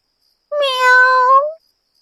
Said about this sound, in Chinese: 喵。 猫悠悠又是可怜兮兮的叫了一声，小身子瑟瑟发抖。